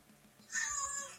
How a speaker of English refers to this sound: Oh, that was a cat.